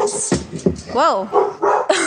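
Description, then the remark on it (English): A six-month-old pit bull puppy named Barney lets out one short, high-pitched bark amid people talking, the bark fairly loud against the voices. “a six month old pit bull and very, very protective and very aggressive at times”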